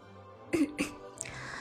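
A host clears their throat in two quick, rasping bursts, the second slightly softer, before introducing the teams at an Honor of Kings (王者荣耀) esports grand final, followed by a faint breathy rustle against a quiet background.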